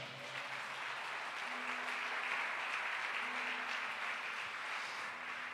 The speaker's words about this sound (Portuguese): Aplauda Ele bem forte.